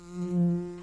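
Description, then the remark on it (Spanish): A bee buzzes in one steady, droning hum in stereo that swells a little louder midway, lasting under a second with no voices around it. “Este es el zumbido de la abeja de Andes Origen Miel, una cerveza con gustito a miel del monte.”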